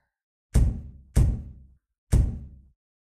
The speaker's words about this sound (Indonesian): Saat aku hendak merebahkan badanku di kasur, tiba-tiba saja terdengar suara pintu terdobrak.